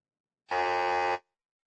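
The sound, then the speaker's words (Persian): A single harsh electronic buzzer blares for under a second, flat and steady with a raspy, nasal tone, then cuts off abruptly into silence, the signal for a wrong answer in a quiz contest. “اون وقت برای پاسخ نادرست هم یک ناماوا وجود داره”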